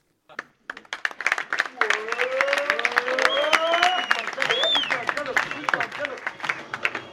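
A theatre audience at a full house bursts into loud, dense applause, with laughter and scattered vocal whoops rising through the clapping before it thins out, at the stand-up play Politiquement incorrecte on 30 May at the Centre Social et Haute-Garenne in Palaiseau, Essonne.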